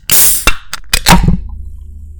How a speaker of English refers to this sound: Here, I'm gonna I'm gonna open my second Four Loco and and for for the listeners.